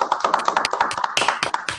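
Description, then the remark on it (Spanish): Quick, steady hand clapping, fairly loud, with sharp claps repeating in a brisk rhythm for a couple of seconds and no talking. “Gracias, que fuerte el aplauso, por favor, para ustedes.”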